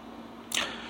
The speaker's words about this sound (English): Oh, and by the way, excuse the background noise, that's the air conditioning, so, in case you guys are wondering.